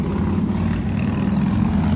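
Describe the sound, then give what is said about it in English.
A motorcycle goes by, its engine a loud, steady low rumble with a droning growl that holds at full strength for the whole moment, with no voices. “motorcycle goes by, and I apologize for that.”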